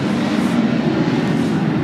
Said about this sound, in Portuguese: Você sabe que essa história de fazer ao vivo tem dessas coisas, né? tem que esperar o avião passar e tudo mais, aquela coisa toda. Acabou de passar um avião aqui fazendo um barulhão.